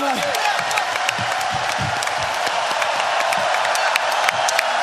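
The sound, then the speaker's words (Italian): Steady, loud applause from a crowd, a dense wash of many hands clapping throughout, with a few cheers and whoops rising briefly near the start. “Applausi, applausi, applausi!”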